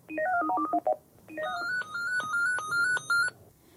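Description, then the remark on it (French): Electronic telephone tones in a bookshop: a quick run of short alternating beeps, a brief pause, then a longer sequence of stepped, melodic beeps, clear with no talking. “comme par exemple répondre au téléphone,”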